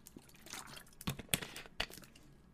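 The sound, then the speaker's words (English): Someone takes a quick drink of water: soft sloshing and a few wet gulps and clicks spaced over a couple of seconds, fairly quiet, with no talking. “Now let me hit the water the water real quick before I, I, I talk about number one.”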